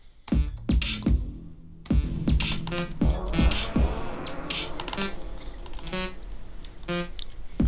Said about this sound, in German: ändere das jetzt in einen etwas interessanteren Bass-Sound.